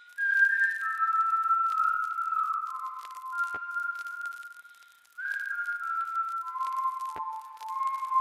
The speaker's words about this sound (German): Und dann habe ich es aufgenommen und es ist mega schwierig, Pfeifen aufzunehmen. Das unterschätzt man wirklich.